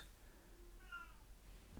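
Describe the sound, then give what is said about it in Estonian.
A single short cat meow, faint and muffled, coming from behind a closed door, with no talking. “mu kass ütles vahepeal ukse taga mjau, aga ma teda sisse ei lase.”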